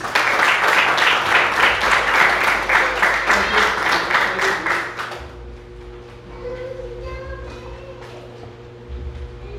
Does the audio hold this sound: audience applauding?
yes